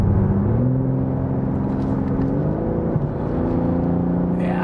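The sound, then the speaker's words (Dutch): A car's 3-litre twin-turbo inline-six engine with mono-scroll turbos runs steadily with a deep, continuous hum and a smooth rising and falling whine, fairly loud throughout, with no voices. “Die glorieuze 3 liter 6 in lijn, 2 turbo's, monoscroll turbo's.”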